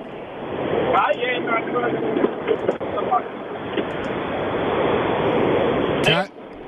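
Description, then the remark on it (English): Loud, steady road rumble and wind roar from a moving car, heard over a band-limited phone line as a caller rings John Laws' talkback radio show with a hands-free that is not working, a voice faintly buried in the noise and a sharp clunk near the end. “I can hear the road really well.”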